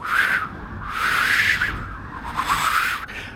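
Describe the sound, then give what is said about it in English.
A voice imitates whistling wind: three breathy, hissing swells, each carrying a thin rising whistle. The gusts rise and fall with no speech. “I need the whistly, like performed wind that's like.”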